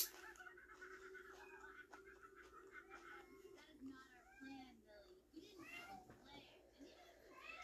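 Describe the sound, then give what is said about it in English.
A cat meows plaintively several times, drawn-out, wavering cries spaced apart over a low, steady background hum, fairly quiet. “Kitty is lamenting.”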